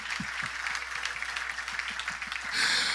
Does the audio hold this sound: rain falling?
no